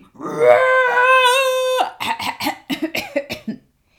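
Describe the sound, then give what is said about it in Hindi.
A person voices a loud, drawn-out roar imitating a cheetah, the story character Detective Cheetah, held for more than a second, then breaks into a quick run of short, choppy vocal bursts. “दहाड़ मारी”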